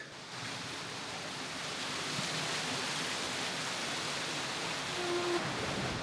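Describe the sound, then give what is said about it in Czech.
A steady, powerful rush of water swells slightly in the first seconds and then roars on continuously as the flow is let in and a water wheel spins up at a water-powered hammer mill, where the wheels drive a hammer, a grinder and bellows. “Proud vody už viditelně zmohutněl, kolo se roztočilo a to je teda švuňk, to je rychlost.”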